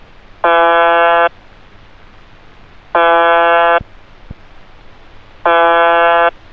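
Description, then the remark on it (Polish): A harsh, droning buzzer tone from shortwave station UVB-76, broadcasting from Povarovo, Russia, 40 km from Moscow, sounds three times, each buzz lasting just under a second, separated by roughly two seconds of faint radio static. “Jest to stacja UVB-76, nadająca z miejscowości Powarowo w Rosji, 40 km od Moskwy.”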